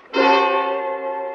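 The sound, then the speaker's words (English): A telephone rings once: a bright, sustained metallic ring that starts abruptly and holds steady, fairly loud, with no voices. “When I got the bell, I thought fast.”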